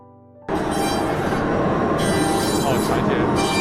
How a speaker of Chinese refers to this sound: 这台就是全自动在把牙刷雕刻出呃刻出来的一台机器，我们可以从玻璃窗那边看一下。